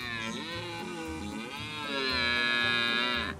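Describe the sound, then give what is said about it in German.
A red deer stag roars in one long, deep bellow, rich and buzzing, swelling louder halfway through before cutting off, with a steady low throbbing pulse beneath it and no talking. “Das Röhren äh, hört sich halt richtig dunkel an”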